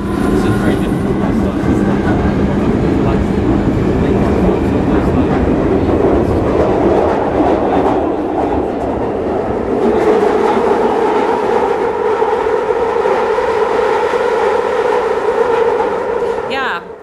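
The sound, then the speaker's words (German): A London Underground train on the Victoria Line rumbles loudly, its wheels squealing with rail squeal in sustained, whining tones that grow stronger and shriller over the second half before cutting off. “Das Quietschen ist technisch gesehen als Schienenquietschen bekannt und tritt bei den meisten Zugsystemen eben auf, ganz normal.”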